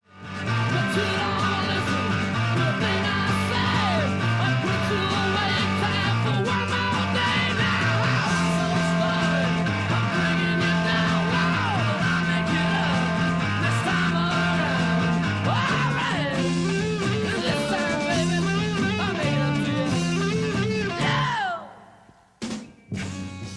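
A loud, dense 1968 heavy rock recording: distorted guitars and a repeating, chugging bass riff drive on without talking, then the music cuts off abruptly just before the end.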